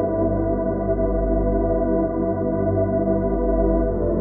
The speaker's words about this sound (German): Du hörst die leise Musik im Hintergrund und du hörst meine Stimme und meine Worte, während du immer ruhiger und immer entspannter wirst.